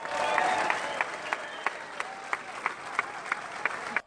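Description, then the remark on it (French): Spectators at a golf course applaud steadily for about four seconds, a dense patter of clapping with a few sharper, louder claps standing out at regular intervals, with faint crowd murmur underneath. “Et puis aussi la réaction des spectateurs et les applaudissements.”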